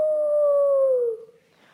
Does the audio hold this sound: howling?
yes